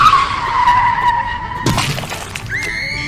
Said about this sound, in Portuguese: Não coube ao homem notar o que fizera no primeiro momento soube instantaneamente ter batido em algo, à direita no capô do palio, arregaçando um farol arremessando contra um muro a mulher que atravessara a rua no mesmo momento.